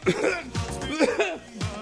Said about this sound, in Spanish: Que tos de trolo.